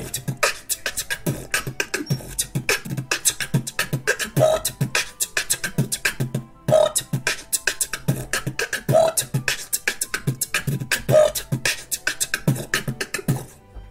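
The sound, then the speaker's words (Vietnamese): Loud beatboxing into a microphone: a voice mimics a drum kit with fast, steady rhythmic kicks, sharp snare clicks and hissing hi-hats, with short hummed tones recurring every couple of seconds, and no talking. “ngày xưa anh có thể showcase một tí được không đi beatbox rồi ừ, thể hiện cho các bạn thấy là ok ok để thế đơn giản mà nhưng mà chỉ sợ mic nó không bắt được thôi”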